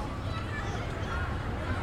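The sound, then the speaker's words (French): Barefoot children playing on the sunny lawns of a neighbourhood park, laughing and calling loudly to each other around the play equipment, their overlapping voices blending into a steady, moderately loud hubbub with no single voice standing out. “Aux pieds nus des enfants qui jouent. Rient et s'interpellent à tue-tête autour des jeux.”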